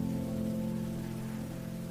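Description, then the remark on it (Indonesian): A steady, continuous hiss of light afternoon drizzle, with a low sustained hum running underneath. No one speaks, and the level stays even throughout. “Sore itu hujan gerimis.”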